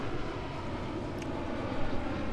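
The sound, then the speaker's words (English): A steady, broad engine drone from an airplane passing overhead, a continuous low rumble that fills the whole clip at a constant moderate level with no talking. “wait, we'll let this over. plane fly over.”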